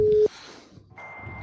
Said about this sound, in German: das ist ein Geräusch einer klassischen DFÜ-Verbindung, äh, so Modem